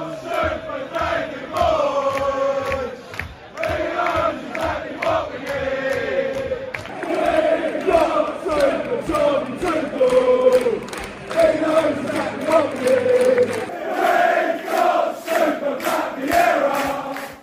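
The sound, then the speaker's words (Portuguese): A crowd of football fans sings a chant together, a loud, rhythmic, melodic mass of voices with regular beats that continues steadily throughout. “É, esse negócio, tá todo mundo cantando aquela mesma música de... We've got”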